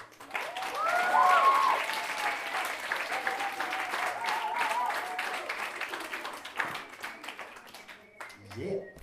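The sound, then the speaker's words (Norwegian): Sustained audience applause for a group of role models, a dense crackle of many hands clapping that swells early and then gradually thins out, with a few voices and cheers mixed in. “Stor applaus til disse forbildene.”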